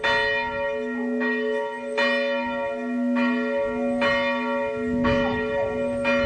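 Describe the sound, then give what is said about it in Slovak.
The bell of the Church of St. Andrew in Liptovský Ondrej rings in a steady, sustained peal, with strikes landing about once a second over a continuous rich, humming tone of layered overtones. No voices are heard. “Takto zvonia zvolný kostola svätého Ondreja v Liptovskom Ondreji, ktorý je exkurendo spravovaný z farnosti Liptovský Ján,”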